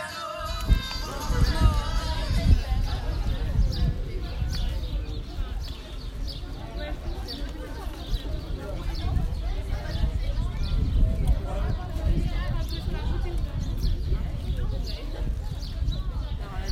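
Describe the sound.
Steady crunching footsteps on gravel in the old town of Florence, Italy, on a warm, sunny March day, continuous, with indistinct voices murmuring in the background and occasional faint high chirps of singing birds.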